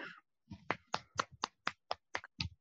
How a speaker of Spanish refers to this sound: No, No, un aplauso, un aplauso para el amor que a ha llegado